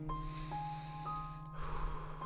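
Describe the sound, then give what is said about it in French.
A single deep, airy breath drawn in and then let out, with a faint steady hum underneath and no talking. “Est-ce que je peux prendre une respiration?”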